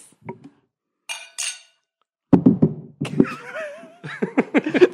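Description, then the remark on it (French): Glasses clink together in a toast, two quick bright ringing chimes that fade, followed by lively voices cheering and laughing. “Yeah, yeah, oh, yeah! Cheers!”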